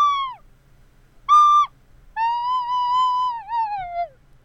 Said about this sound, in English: This is a recorder. It's kind of like a flute, but much easier to play. So, uh, dust off your recorders. Let's hear one for nostalgia's sake.